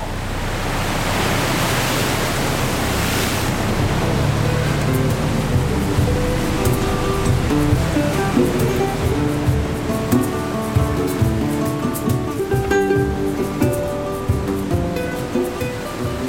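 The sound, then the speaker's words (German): Steady rushing water with waves splashing and slapping, loud, as the bow of the daily ferry linking Mindelo with the neighbouring island of Santo Antão cuts through the sea on a crossing of just under an hour; after a few seconds faint tonal, music-like notes drift in over the surf. “Der synkopische Rhythmus von Mindelo verklingt im Klatschen der Wellen, die vom Bug der täglichen Fähre durchschnitten werden, die die beiden Inseln verbindet.”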